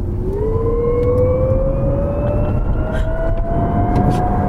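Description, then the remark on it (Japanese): A steady synthetic whine from the car's active sound control system rising gradually in pitch as an electric car accelerates with the accelerator pressed, with layered tonal harmonics over a continuous low road and motor rumble. No one speaks. “アクティブサウンドコントロールはあられちゃんだったっていう感じになってきましたけど 未来感たっぷりたっぷりでしたね、うんうん、なんか飛んでいきそうな音で今飛行機でも乗ってんのかなって思う感じがしましたけど”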